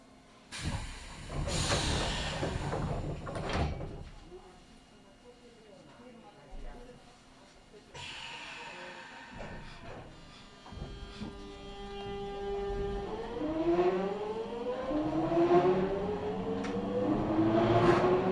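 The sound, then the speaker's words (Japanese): Train doors hiss and thud shut in a burst of noise as the train departs from platform 1, then it pulls away, its motor whine rising steadily in pitch and growing louder. A voice can be heard faintly at times. “皆様、まもなく1番乗り場から電車が発車します。扉が閉まります。”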